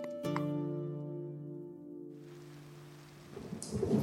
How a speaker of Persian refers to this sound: بارون میاد خیلی وقته جان از اون بارون ریز ریزاست که خیلی دوست دارم